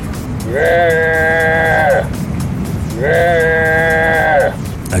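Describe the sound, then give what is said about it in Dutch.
A stray moose calls twice inside a parking garage, each call a long, loud, drawn-out nasal bellow lasting over a second, separated by a short pause, over a steady background rumble with echo. “Luister naar de eland in de parkeergarage.”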